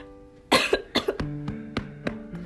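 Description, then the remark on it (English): A fit of coughing after choking on saliva, two harsh wet coughs followed by a string of shorter, sharper hacks spaced roughly evenly, like someone choking and clearing their throat. “I tricked in my spit for a minute there.”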